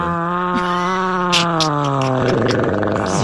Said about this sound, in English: So from the show that brought you the 11 second fart where the guy switches gears as he's farting, it sounds like this.